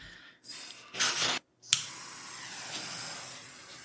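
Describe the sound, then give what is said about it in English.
Hissing fire with a sharp pop and a brief roaring flare, breaking off for a moment before settling into a steady, softer crackle. “Ignore the casual sound of fire.”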